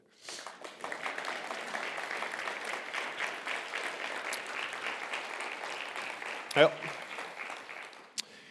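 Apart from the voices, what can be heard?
audience applause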